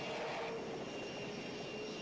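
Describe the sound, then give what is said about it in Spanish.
A helicopter's engines start up, running with a steady, droning roar and a thin high whine on top, holding constant and fairly loud throughout the short stretch, with no voices. “Tiene un, sonido de helicóptero masterizado.”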